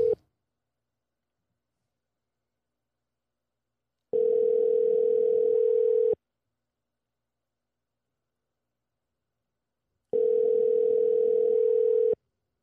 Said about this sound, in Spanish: Voy a llamar al pana mío para ver cómo están las cosas por allá y de ahí lo seguimos. Esto, como te dije, estoy probando estas jodiendas, vamos allá. Vamos a darle ring, ring, ring, ring. A ver si se escucha, yo no sé.